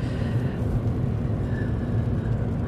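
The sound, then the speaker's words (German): Steady low road rumble and tyre noise from inside a small Smart electric car on a test drive, a constant, fairly loud hum with no voices. “Testfahrt mit einem Elektroauto - Smart”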